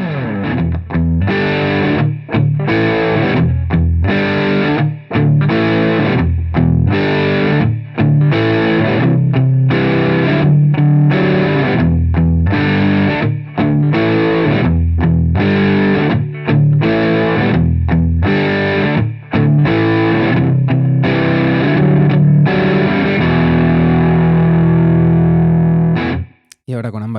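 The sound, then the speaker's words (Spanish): A loud, heavily distorted electric guitar with a warm, rounded neck-pickup tone plays a steady riff of sustained chords and short stops for about half a minute, ringing out at the end. “Pastilla del mástil.”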